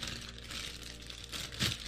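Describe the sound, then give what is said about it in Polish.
Quiet crinkling and rustling of thin kapton tape being handled and pressed down over a computer processor, with a brief louder crackle near the end and no voices. “Bierzemy kapton i będziemy procesor zalepiać.”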